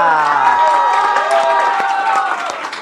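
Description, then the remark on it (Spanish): A crowd breaks into loud applause for the staff, mixed with cheering and whooping voices, the clapping steady and dense for about three seconds before easing slightly at the end. “O sea, aplausos para el staff.”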